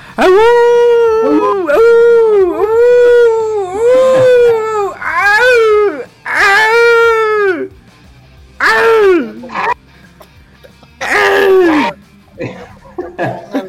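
An old wolf howls loudly, about eight mournful, wavering howls: several in quick succession, then two more after short pauses.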